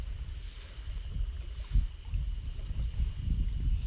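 Gentle waves of Lake Shikaribetsu, Japan, lapping at the shore in low, irregular splashes, with a steady soft wash of wind underneath and no voices.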